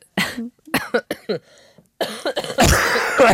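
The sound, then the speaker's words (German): Several loud coughs from two people, one of them badly unwell, in quick bursts, some harsh and raspy, with a throat-clearing sound and a final long, rough coughing fit at the end. “ja, und beide husten wir, ne?”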